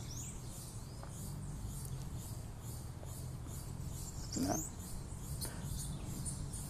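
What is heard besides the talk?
small bird chirping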